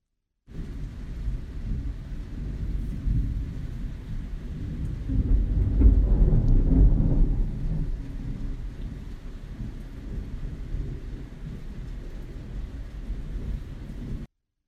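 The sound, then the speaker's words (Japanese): Recorded at night during a fierce thunderstorm: steady rain hisses throughout while a low thunder rumble swells and rolls for a few seconds midway, then fades back under the downpour without any sharp crack. “先日夜雷が凄まじくこれはと思い録音しましたと頂いております。”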